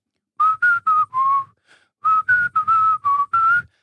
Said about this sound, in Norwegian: Her om dagen I det siste, flere ganger, så har jeg tatt meg selv i å gå og plystre